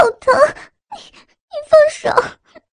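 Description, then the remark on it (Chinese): A woman cries out in pain as her long hair is yanked hard downward, in several strained, wavering bursts, loud and voiced, with short gasping breaks between them and no words spoken. “吴曼丽将碧瑶拢在前胸的长发一把抓在手中，使劲向下一扯，将碧瑶的头往下拉，满意的听到。碧瑶的痛呼声”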